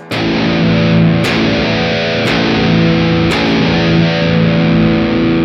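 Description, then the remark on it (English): A heavy, low-tuned distorted electric guitar, played to show its tone rather than the riff, chugs with a thick, saturated tone, sustaining dense low notes with a few sharp pick attacks cutting through; no voices are heard. “That wasn't the riff, but that's how low it is.”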